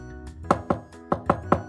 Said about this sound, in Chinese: 就在这个时候，他忽然听到敲门声。